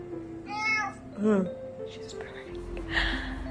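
A cat named Lucy meows twice in quick succession, fairly clear, with a quieter rustle and soft background noise following.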